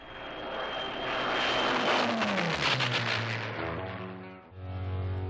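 A Spitfire fighter plane's engine roars loudly overhead, its pitch sweeping downward as it passes, then settles into a steady, rumbling drone with no voices.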